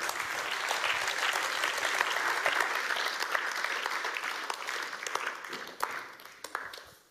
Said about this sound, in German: So schön. Herzlichen Applaus, merci vielmals